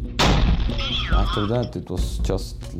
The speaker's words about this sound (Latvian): Un pēc tam skaļš sprādziens. Jūtu, kā trieciena vilnis izspiež gaisu no uh, plaušām.